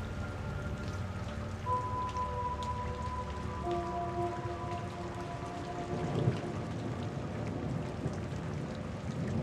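Steady rain falls in a continuous, even patter, with a low rumble underneath and a few faint tonal hums drifting in and out. No one speaks.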